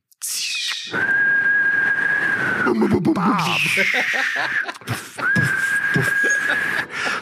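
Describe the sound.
A voice imitates a whistling firework (a 'Heuler') as part of a final New Year's Eve fireworks: a loud, steady high-pitched whistle held for over a second, a noisy burst and clatter, then the whistle sounds again, with some vocal noise between.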